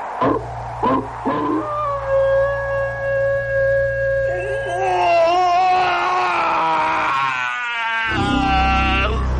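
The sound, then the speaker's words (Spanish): Long, drawn-out wolf howls with wavering, gliding pitch, several voices overlapping into a chorus midway, over a steady low hum and a few brief knocks at the start. “Y el rey aulló.”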